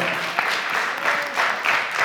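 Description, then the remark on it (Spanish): An audience applauds steadily, a dense wash of many hands clapping with a few whoops or cheers rising through it, sustained at an even moderate loudness throughout. “Denle un aplauso para que ellos sepan que este lugar es mejor que allá.”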